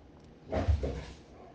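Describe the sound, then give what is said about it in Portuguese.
A dog makes a brief, muffled noise, two quick rough bursts in close succession, heard faintly in the background with no one talking. “E o meu cachorro tá causando aqui, espero que o áudio não pegue.”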